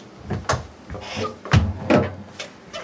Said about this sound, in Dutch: Ik ga de deur dicht doen.